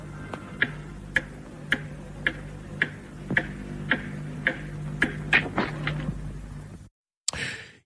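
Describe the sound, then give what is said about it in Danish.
Steady, evenly spaced ticks sound about twice a second over a low hum and hiss, a ticking signal on a wartime air-raid radio broadcast, before a brief silence and a short burst of noise. “Ja, det man kunne høre her lidt tikkende, det er øh, det, man kalder for gavlejderen stønnen, Tik, tik, tik.”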